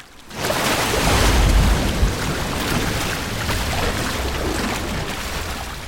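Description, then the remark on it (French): Wastewater from a factory that has just started up gushes loudly straight into a river, a steady roar of rushing water that starts abruptly and continues without a break, with no voices. “Et je ne sais pas si tu arrives à le voir d'ici, mais les eaux usées qui sortent de l'usine sont directement déversées dans la rivière.”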